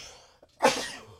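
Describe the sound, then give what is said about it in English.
A single sharp sneeze, fairly loud: a brief faint intake of breath, then an explosive burst that trails off over about half a second. No talking. “Bless you. Excuse me.”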